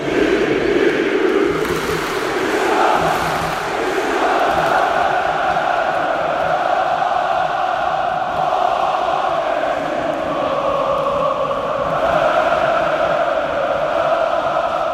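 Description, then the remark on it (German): A huge football crowd at Vodafone Park stadium, at 141 decibels, roars and chants continuously at high volume, thousands of voices blending into a dense, sustained wall of sound with rising and falling chant melodies and no individual talk. “Äh, Vodafone Park, 141 Dezibel haben wir schon gehört. Und da tauchen wir jetzt, würde ich sagen, einfach noch einmal ganz kurz ein, meine Lieben.”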